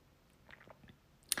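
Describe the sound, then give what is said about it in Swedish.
Quiet, wet chewing and slurping from wild animals inside a room, a string of soft irregular smacks, ending in one sharper, louder crunch. No one speaks. “Och den här gången något jag bara kan beskriva som ett slurpande ljud.”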